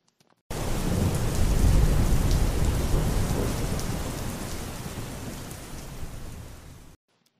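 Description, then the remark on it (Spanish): Heavy rain pours steadily as a deep thunder rumble swells underneath, building a dense storm roar that slowly eases over several seconds, with no voices present. “Pero un día, gotitas de lluvia comenzaron a convertirse en una gran tormenta.”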